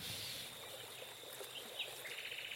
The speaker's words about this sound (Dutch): Hoor je die krekeltjes? Ja, mooie.